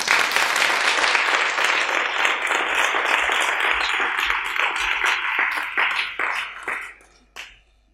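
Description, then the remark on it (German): Sustained audience applause at an award ceremony as the second prize is announced for someone from Yoga Steps, a dense crackle of many hands clapping at steady loudness, then thinning out into scattered individual claps that fade away over the last couple of seconds. “Der zweite Preis geht an Caroline Stern von Yoga Steps. Applaus”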